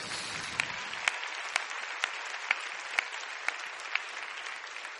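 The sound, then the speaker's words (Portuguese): Sustained applause from an audience for the volunteers of Celebrando a Vida fills the space, a dense wash of clapping with a few sharper claps standing out at regular intervals, with no voices heard over it. “Gente, eu gostaria que você desse um aplauso para todos os voluntários do Celebrando a Vida agora, no nome de Jesus.”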